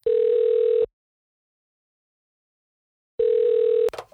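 A phone line ringing as a call is placed to a recruiter at Upquality: two long, steady, mid-pitched tones separated by a gap of silence, the second cut short by a click and rustle as the call connects.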